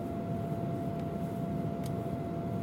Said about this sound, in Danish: Flyvemaskinen starter og er oppe i luften på ingen tid. Der er meget larm i en flyvemaskine.